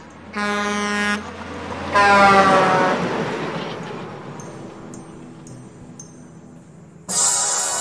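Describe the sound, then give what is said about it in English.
A big pink dump truck's air horn blares in loud blasts on the road: one steady honk, a pause, then a longer rich blast that trails off slowly, with a harsh burst of noise at the end. “If you see the old pink, see the old pink dump truck out on the road, pump your fists twice and see if he honks at you. Honk, honk.”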